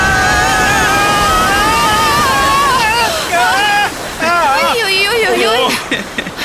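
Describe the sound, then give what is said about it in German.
Loud, steady rushing whitewater rapids roar around a canoe for the whole stretch, while several voices cry out in drawn-out, wavering exclamations over the churning noise. “Stromschnelle voraus,”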